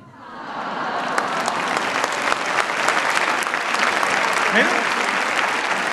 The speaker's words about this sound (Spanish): Déjame decirte que los chilenos te han aplaudido y es el termómetro de que les gustó lo que dijiste.